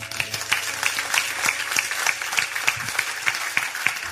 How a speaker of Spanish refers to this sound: Amén, porque no le damos un fuerte aplauso.